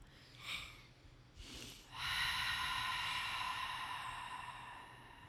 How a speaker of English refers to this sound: So, inhaling through the nose and really exhaling through the mouth. So, you're almost going to make a sigh sound or a ha.